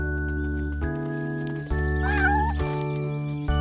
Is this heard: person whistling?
no